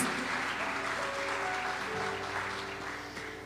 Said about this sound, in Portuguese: Mais uma salva de palmas a Jesus.